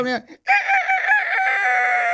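A rooster crows once, a long, strained, nasal call held steadily for nearly two seconds, loud. A brief voice is heard just before the crow begins.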